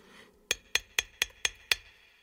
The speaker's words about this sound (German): Mei, wo kann denn der depperte Schatz in der Krypta nur stecken? Wo ich hinklopfe, nirgends klingt's hohl.